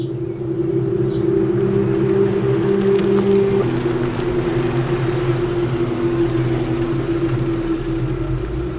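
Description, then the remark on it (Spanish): A Tesla's steady engine hum rolls along, its droning tone shifting slightly partway through as it moves slowly forward, headlights on, into the parking access of a luxurious chalet at 23:32, with no voices over it. “Los faros del Tesla iluminan el acceso al parking del lujoso chalet de Uriol.”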